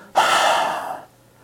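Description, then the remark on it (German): A single long, breathy, full exhale through the mouth during a breathing exercise, starting abruptly and fading gradually over nearly a second, fairly loud with no talking. “Und jetzt nochmals atme durch den Mund vollständig aus.”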